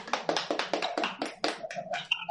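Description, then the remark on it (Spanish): Short burst of applause welcoming the guest Tonatiu Hernández: a quick, fairly steady run of sharp hand claps at moderate loudness, with brief tonal sounds like cheers mixed in toward the end. “Así que pues nuestro invitado de hoy es Tonatiu Hernández. Aplausos.”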